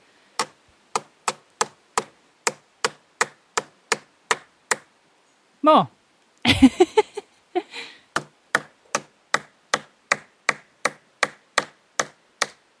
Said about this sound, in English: Yay, we left our mark. Isn't that cool? suppose what we have done by hammering in the coin is uh, passing our illness onto the tree.